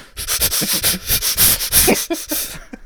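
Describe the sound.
A voice imitates a person with a bucket on their head breathing through two drinking straws sticking out, breathing SOS as three short, three long, three short: a loud run of rasping, hissy breaths, roughly a dozen short airy pulses in quick succession, with no talking.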